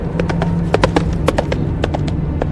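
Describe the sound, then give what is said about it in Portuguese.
Hooves of a single large horse galloping with a rider, a quick run of sharp clip-clop beats in an uneven rhythm, steady in loudness over a low background hum. “Escuta um galopar de um cavalo só, ele tá cavalgando.”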